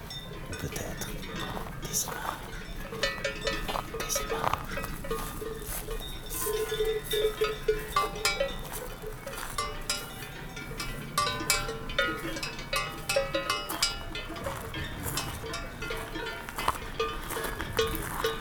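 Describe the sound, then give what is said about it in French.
Bells (sonnailles) hung on horses clank irregularly and continuously, several at once, with faint hoof steps and soft background murmur of voices. “des chevaux des sonailles. Paysage sonore, habituel,”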